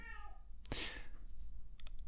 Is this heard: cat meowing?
yes